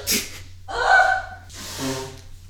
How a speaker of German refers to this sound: Ich habe mich einfach verschluckt und dadurch halt musste ich niesen, ey.